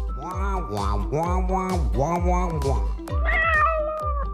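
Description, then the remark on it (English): A cat meows repeatedly up close, a run of loud, rising-and-falling meows in quick succession, ending with a higher, drawn-out, strained yowl. “He says Northwest Naturals has cat treats too.”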